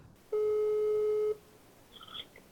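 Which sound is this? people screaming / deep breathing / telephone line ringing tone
telephone line ringing tone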